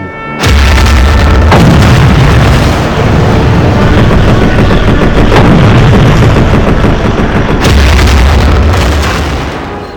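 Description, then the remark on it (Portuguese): A dense, continuous barrage of loud booms and bursts, with deep rumbling explosions overlapping rapid anti-aircraft fire, sustained at high intensity with no voices: American aircraft bombing Japanese aircraft carriers of Admiral Nagumo's fleet, including the Soryu, as their anti-aircraft batteries fire back in vain. “Os convéses dos porta-aviões japoneses, repletos de aeronaves, combustível e bombas, se viram sob o bombardeio inimigo.”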